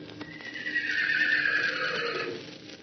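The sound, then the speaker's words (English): A horse gives one long, loud, bugling neigh that rises and wavers before trailing off, heard alone, with no one talking. “And he lifted up his voice and called to them the long, bugling neigh of his kindred.”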